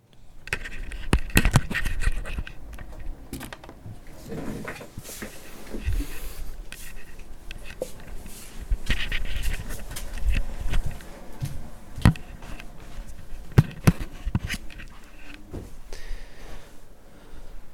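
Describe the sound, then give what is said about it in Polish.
Scratchy rubbing and scraping of three handheld audio recorders against one another, held in two hands while recording on a balcony in sunny weather, with irregular clicks and bumps throughout over a steady low background hiss. “Tu trochę słychać pocieranie tych racerów jednego od drugiego, bo mam tylko dwie ręce, a trzy rejestratory.”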